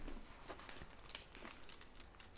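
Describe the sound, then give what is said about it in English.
Thin paper pages of a Bible being flipped to find 1 Corinthians 10:10, a run of soft, crinkly rustles and quick swishes over a couple of seconds, fairly quiet, with no voices. “In the paper version again, let me find it. You could tell we're young men because I'm using a paper Bible and I have to like go and like sing the song to myself to find these books.”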